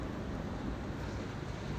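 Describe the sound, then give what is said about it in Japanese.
Heavy rain pouring down at a workplace car park in a steady, dense hiss with a low rumbling roar underneath, loud and constant throughout, with no voices. “ちょっと、今日、雨強い。”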